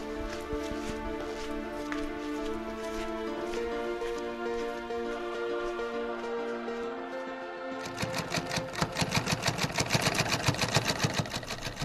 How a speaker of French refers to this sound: nous entendons un bruit de machine à coudre puisque nous sommes dans le musée Barthélemy Timonier en pleu euh, eh bien, une découverte sur les traces des premières machines à coudre.